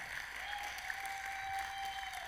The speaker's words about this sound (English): Give them a hand clap.